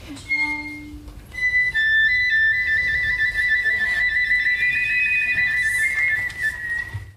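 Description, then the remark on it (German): A flute plays a bright, whistle-like melody of sustained high notes with a brief trill, fairly loud over a soft low rumble, with no voices. “die Flöte so etwas ist wie die ganze Vogelfamilie plus irgendwie, wenn man pfeifen will, dann kommt auch irgendwie Flöte zum Einsatz.”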